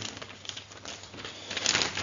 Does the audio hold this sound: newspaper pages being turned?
yes